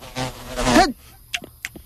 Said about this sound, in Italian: La mosca!